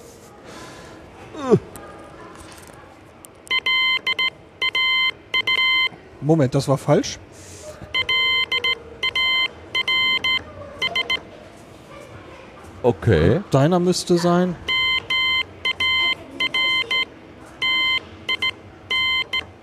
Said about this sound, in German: Hier steht eine richtige Morse-Taste. Aus mit. Oh, wir hören was. Wo kommt das denn her? Hier oben. Ach, da. Dann halte ich mal den Spion da dran, während du jetzt mal deinen Namen morst, bitte.